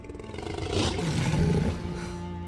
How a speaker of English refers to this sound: and he roars a full throaty lion roar over the crowd as he's he's clutching her. It just echoes throughout the, the arena.